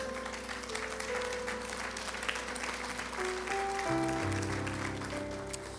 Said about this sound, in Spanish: Te invito. No ponemos en pie. Démosle fuerte ese aplauso al Señor una vez más.